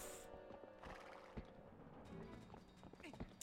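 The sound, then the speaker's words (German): In a video game, a horse whinnies while its hooves clatter in quick, uneven beats, galloping and nearly running over its own rider character. The sound is fairly faint, with a busy background and no speech. “du wirst von deinem eigenen Pferd fast überrannt.”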